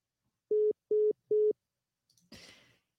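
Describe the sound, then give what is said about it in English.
A phone line's disconnect tone after the caller hangs up: three short, steady mid-pitched beeps in an even rhythm, followed by a brief burst of noisy clatter. No one speaks. “The caller has hung up.”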